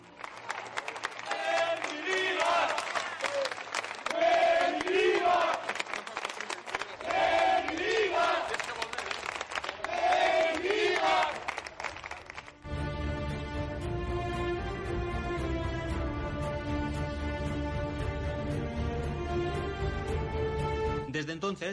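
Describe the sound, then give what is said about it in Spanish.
A large stadium crowd of football fans roars and cheers, with chanting voices rising in waves over steady clapping, loud, for about twelve seconds before giving way to music. “El Mister nunca tuvo buenas sensaciones y pese a que el equipo estaba fuera de descenso, se tomó la decisión fatal de destituirlo recién empezada la segunda vuelta, ante el desacuerdo de una afición que le mostró su gratitud en forma de aplausos.”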